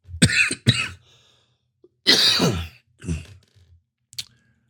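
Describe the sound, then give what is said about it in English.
A fit of harsh, loud coughs after swallowing wrong: two quick coughs, then a longer raspy burst, a rougher hacking cough, and a final short cough, with brief pauses between. “Excuse me, I swallowed wrong.”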